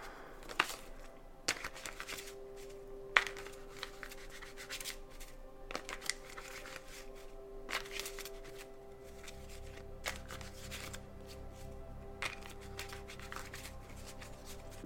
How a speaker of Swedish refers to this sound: Jag vill dra något mer kort till er.